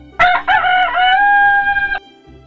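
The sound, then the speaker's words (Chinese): A small black cockerel leading the way ahead of Napoleon gives one loud, drawn-out crow like a trumpeter, starting with a sharp rising burst and holding a bright, strained, harmonic tone for nearly two seconds before cutting off abruptly. No voices are heard. “小公鸡像个喇叭手一样高声啼叫。”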